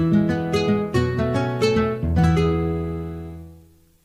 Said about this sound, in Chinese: No，这是把吉他。